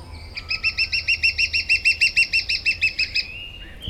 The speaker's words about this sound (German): Der Vogel der Woche, der Kleinspecht.